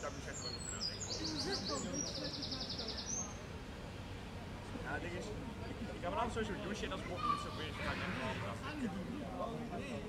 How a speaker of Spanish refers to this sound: Los pájaros cantan y las nubes no se levantan porque hoy no hay.